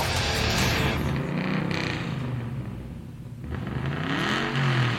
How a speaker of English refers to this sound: That is not an electric car, by the way. That is a glorious internal combustion engine.